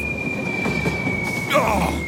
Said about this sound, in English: Dag nabbit, that's my train!